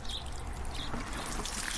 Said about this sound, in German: nimmt eine mit Wasser gefüllte grüne Gießkanne, trägt sie zur Wiese und kippt die Kanne aus.